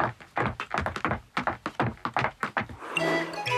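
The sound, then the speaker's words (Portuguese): A quick series of hollow wooden thumps, about a dozen steps in steady rhythm, fairly loud, as someone walks down wooden stairs, ending in a brief different tonal rattle. “E a resposta correta é alguém a descer umas escadas de madeira.”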